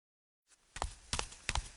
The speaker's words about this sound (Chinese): 随着乒乒乓乓的脚步声，郑汉穿得花里胡哨的走了进来，一屁股坐在叶氏祖的办公桌上，一只脚踏着凳子。